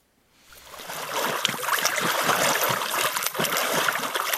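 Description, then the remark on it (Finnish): Lake water sloshes and splashes as people swim at Liessaari swimming beach on the murky, clay-bottomed Lake Lohjanjärvi in Lohja, a steady, busy churning that swells in after a brief quiet start and keeps going without pause. No one speaks. “Miten, äh, mitä kuvailisit tätä vettä, jossa me nyt tuidaan?”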